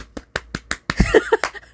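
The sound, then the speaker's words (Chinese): A hand slaps a foot while the other hand holds a phone, in a quick, steady run of sharp, dry smacks, four evenly spaced, then a louder, busier cluster of slaps mixed with brief vocal sounds. “有意思，一只手拿手机，拍脚，为你拍脚，就是这种感觉。”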